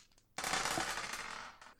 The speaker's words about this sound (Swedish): Yes, det skottet går av åt rätt håll. Det är bra början.